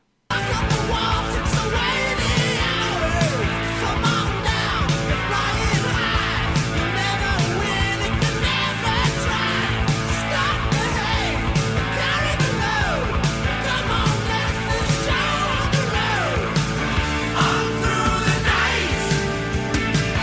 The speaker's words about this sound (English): New Wave of British Heavy Metal or Not. Take a listen to this.